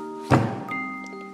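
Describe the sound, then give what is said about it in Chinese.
A single heavy, dull thump as the big grey wolf slams into a brick house hits loud and low, then decays quickly into a faint steady hum with no voices. “大灰狼用劲儿地撞一下，砖房一动也不动，又撞了一下”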